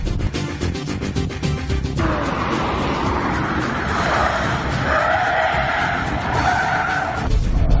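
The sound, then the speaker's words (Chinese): A Santana car's tires squeal loudly during a 70 km/h lane-change test, with an engine roaring underneath and the ESP intervening. The screech rises and wavers in pitch across several seconds, fading toward the end as the engine surges again. “好，接下来我们就要做一下七十公里的变现，看看桑塔纳的表现如何。”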